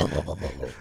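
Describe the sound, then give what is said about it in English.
A voice imitates a rumble of thunder: a short, low, throaty growl that pulses in quick, uneven bursts, fairly loud, for under a second. “that's thunder. That's the thunder. Yeah, that's afterward.”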